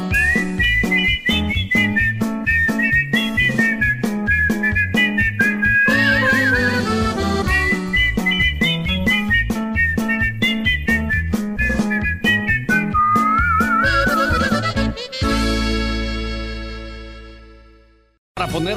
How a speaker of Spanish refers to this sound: Prefiero el martirio de escucharlo chiflar.